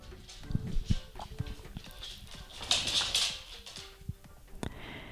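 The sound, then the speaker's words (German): A dog's paws patter across a hard floor in a scattered series of light, irregular clicks and taps, with faint background noise in between. “Ja, und vielleicht hörst du hier im Hintergrund so ein bisschen Getapse.”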